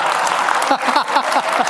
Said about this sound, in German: Armin Thurnherr betrachtet den andauernden Applaus als Aufforderung zu einer Zugabe